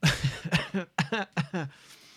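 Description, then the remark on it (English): A short fit of moderately loud coughing from a lingering cough of about six weeks: several rough, voiced coughs in quick succession over about two seconds, with no speech around them. “How do I still have a little cough? It's been like six weeks.”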